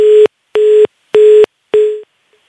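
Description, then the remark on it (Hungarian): A telephone busy tone beeps four times in an even on-off rhythm after a phone call drops, each steady electronic tone loud and clear, with the last one fading slightly before silence. “hát, nem ellenzék kompatibilis ezek szerint a telefonhálózat”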